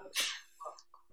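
A single sharp, explosive sneeze bursts out during a lecture, followed by a brief quieter sniff or murmur as it trails off.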